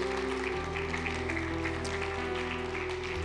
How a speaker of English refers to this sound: I'm going to invite a couple of baptism candidates to come forward. I think there's two two men. If you guys would make your way, come on, let's give them a round of applause.